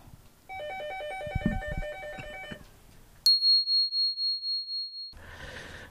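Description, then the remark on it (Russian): A telephone rings: first a bright electronic ringtone melody for a few seconds, then a piercing high-pitched ring that pulses rapidly and loudly before cutting off. No one speaks. “Вот не таким образом, так по телефону у нас прервут.”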